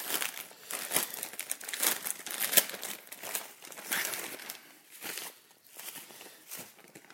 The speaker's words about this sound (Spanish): Vamos acá a destaparlo. Estas bolsas de seguridad son una mamera de abrir.